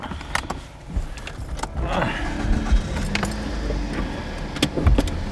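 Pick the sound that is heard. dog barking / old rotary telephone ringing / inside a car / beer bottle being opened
inside a car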